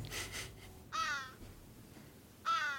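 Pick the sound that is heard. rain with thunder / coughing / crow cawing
crow cawing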